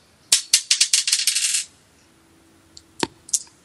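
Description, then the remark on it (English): A die, the first of five rolled in turn, clatters across a hard table in a quick burst of bright, rattling clicks that fade out over about a second, followed by a few scattered lighter taps. “Here goes the first dice.”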